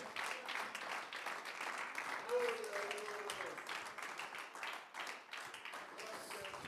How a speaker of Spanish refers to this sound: bríndele ese aplauso con todas las fuerzas de su corazón al Señor, hermano. Si esas son todas sus fuerzas, está bien, pero si el aplauso usted cree que debe ser con mayor amor y calidad para el Dios de las respuestas, bríndeselo.